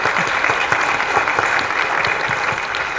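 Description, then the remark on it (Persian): Steady, dense applause from an audience, many hands clapping at once in a continuous, moderately loud wash with scattered sharper claps, and no voices. “براش دست بزن خیلی قشنگ بود نشنیده بودم”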